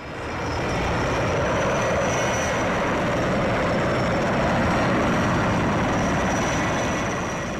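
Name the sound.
firefighting helicopter flying overhead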